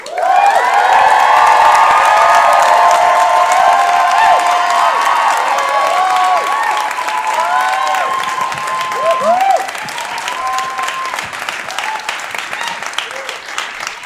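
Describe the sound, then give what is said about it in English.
A large crowd at a live storytelling event bursts into loud, sustained applause mixed with whoops and cheers, holding strong for several seconds before gradually thinning into scattered clapping and shouts. “So that means make so much noise”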